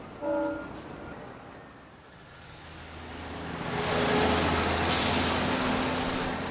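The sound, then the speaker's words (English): Heavy duty diesel trucks at a port in California rumble with a deep, steady engine drone that swells louder as one approaches, joined by a sharp hiss of air brakes; no one speaks. “Heavy duty diesel trucks put out half the vehicle pollution in California, even though they make up only 3% of what's on the road.”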